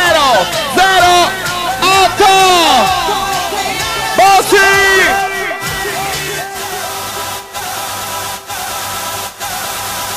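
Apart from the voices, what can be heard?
crowd cheering and shouting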